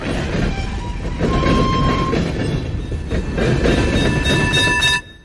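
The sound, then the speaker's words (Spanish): An out-of-control tram speeds loudly along rails with a dense, continuous rumble and clatter, thin metallic squeals ringing over it, before the sound cuts off abruptly near the end. No one speaks. “Un tranvía fuera de control se dirige a toda velocidad hacia cinco personas atadas a las vías, pero puedes mover una palanca que desvíe el tranvía hacia otra vía, en la que solo una persona morirá”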